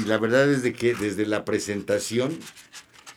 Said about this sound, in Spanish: y perdón el ruido que hago aquí con las hojas, estoy ojeando los libros